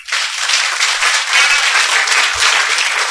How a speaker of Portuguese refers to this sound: Salva de palmas, gente.